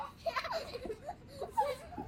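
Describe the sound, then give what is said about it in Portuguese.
High-pitched voices of children playing, squealing in short bursts that could be either giggling or crying. The sounds come and go, fairly faint. “Isto às vezes nunca sabe se eles estão estão a chorar ou se estão a rir”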